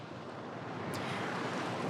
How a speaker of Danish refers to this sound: Der er ikke en sky på himlen, solen skinner, det er varmt, og bølgerne, bølgerne er meget sådan lange og bløde, har mor forklaret mig.